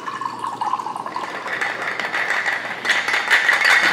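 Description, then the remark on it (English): A cocktail of Spumante Brut sparkling wine and club soda is strained and poured into a glass: a steady trickle of liquid whose pitch climbs as the glass fills, lasting several seconds with no talking. “And then I'm gonna strain it out into a glass.”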